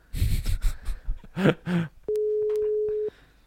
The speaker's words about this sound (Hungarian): Lekeverjük egy ilyen kicsöngő hanggal.